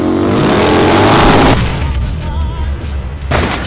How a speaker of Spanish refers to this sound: ¡Es una moto! ¡No! ¡Espera! ¡Es mi moto!